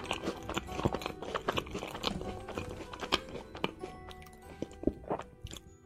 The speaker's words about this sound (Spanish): Pues bien, el sonido de masticar es uno de ellos, y hay todo un movimiento en la red de vídeos de gente masticando para deleite de sus sensoriales seguidores, para gustos, colores.